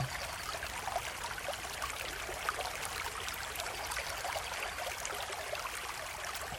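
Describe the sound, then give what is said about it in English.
A clear stream in a forest flows steadily over smooth rocks, a continuous bright babbling and trickling of water, with no voices and no pauses throughout. “The water is clear, and you can see straight to the bottom of the stream as the water glides over smooth rocks and fish dart back and forth.”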